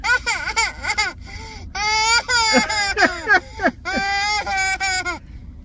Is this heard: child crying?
yes